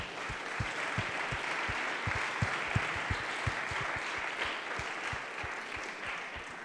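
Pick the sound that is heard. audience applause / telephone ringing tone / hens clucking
audience applause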